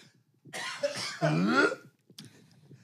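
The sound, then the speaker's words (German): A harsh cough in two heavy bursts lasting over a second, raspy and strained, followed by quieter breathy throat noise and a faint short sound near the end. “eurem Hust-Podcast von den zwei alten Männern, die kurz vorm Sterben sind.”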